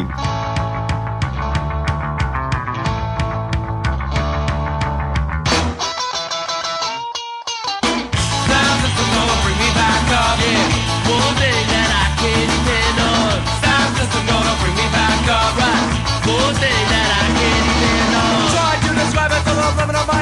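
Loud, driving punk rock plays with dense guitars and pounding drums, briefly drops to a thin, sparse break, then crashes back in at full volume. No one speaks.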